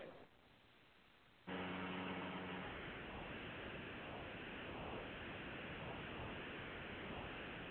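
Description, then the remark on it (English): A quiet hiss gives way to a sudden burst of loud, dense static that fills the line and stays steady for several seconds, with a brief hum-like tone near the start of the burst. “Somebody just said something, and I didn't get anything but static.”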